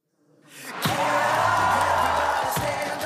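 Supporters of Alexander Van der Bellen cheering as he defends his office as Austrian Federal President with over 50 percent of the vote, a loud sustained roar of many voices that swells up quickly and holds steady, with whoops and a couple of sharp knocks or claps.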